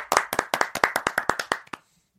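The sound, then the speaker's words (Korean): Brisk, evenly timed clapping before a sung performance about Beethoven losing everything, about a dozen sharp, loud claps in quick succession that stop abruptly after under two seconds, leaving near silence. No voices are heard. “자, 뜨거운 박수 주세요.”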